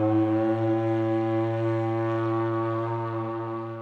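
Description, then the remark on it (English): A loud, sustained trumpet blast holds one steady, brassy note for about four seconds, rich in harmonics, fading only slightly at the end with no voices. “The jaguar took a step closer to them, still sniffing the air, when just then the loud sound of a trumpet blasted through the jungle, coming from behind them.”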